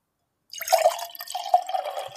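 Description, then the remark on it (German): Hunting Room white wine poured into a glass after a moment of silence: a steady splashing gurgle with a ringing glassy tone, lasting a couple of seconds with no talking. “Der Hunting Room Wein klingt auch immer noch ein bisschen besser als ein normaler Wein, wenn man den ins Glas schüttet.”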